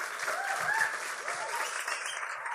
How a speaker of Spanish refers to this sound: En verdad, los dos, denle un aplauso porque estos dos son unos genios.